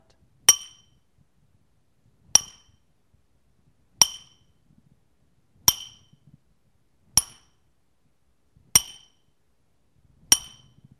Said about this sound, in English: When will it stop? And the hammer falls again and again and again and again.